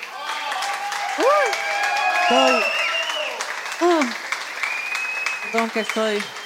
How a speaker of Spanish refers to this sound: Y en ese sentido quiero dar este, un aplauso de bienvenida